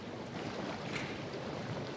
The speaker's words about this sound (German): in einer Badelandschaft mit mehr als 2000 Quadratmetern Wasserfläche, 13 verschiedene Saunen, 83 Millionen Euro wurden in diese Hotel- und Thermenanlage investiert und wir hören neben dem Rauschen des Wassers